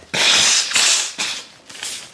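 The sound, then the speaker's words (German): A rapid run of sneezes, about four loud, breathy bursts with sharp onsets and hissy, airy tails, coming roughly every half second with no talking in between. “Gesundheit.”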